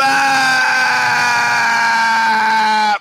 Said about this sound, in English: And I held that that first scream, you know, uh, …!